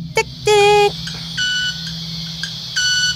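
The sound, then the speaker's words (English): A bird's rapidly vibrating wings give off a buzzing, tonal hum in three short bursts separated by brief pauses, fairly loud over a low steady rumble. “Their wings vibrate so fast that they make this sound.”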